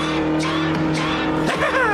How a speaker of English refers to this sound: Watch, watch this, y'all. That truck hit him so bad. Woo!